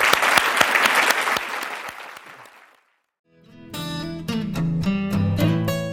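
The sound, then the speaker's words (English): An audience at a Stanford Entrepreneurial Thought Leader Series lecture claps steadily to thank the speaker, the applause loud at first, then thinning and fading into a brief silence before music with tonal notes begins. “Please join me and thank you”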